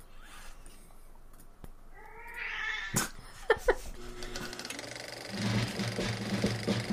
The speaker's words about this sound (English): Kitty. We're recording over here, Kitty.